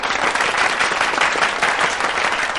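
A crowd applauds in honor of a group of children who performed a dance, dense overlapping claps forming a loud, continuous wash of sound with no pauses and no voices standing out.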